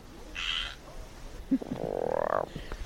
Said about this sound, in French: La pluie commence à tomber et du coup les rainettes sortent et surtout elles chantent.